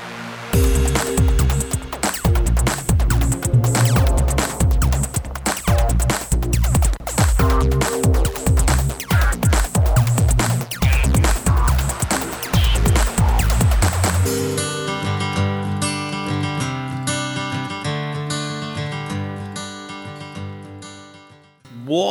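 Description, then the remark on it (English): A loud, full music track plays with a steady driving beat and dense layered instruments, then thins after the midpoint into a softer, sustained melodic section that fades toward the end. “What a tune!”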